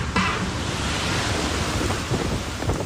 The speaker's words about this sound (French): Là, je sais pas si vous entendez comment ça souffle vraiment beaucoup. Euh, voilà ce qui se passe dehors